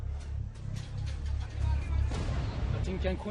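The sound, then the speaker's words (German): A series of sharp gunshots cracks out irregularly over a steady low rumble, and raised voices and shouting break in near the end. “Hier wird geschossen.”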